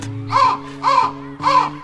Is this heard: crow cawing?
yes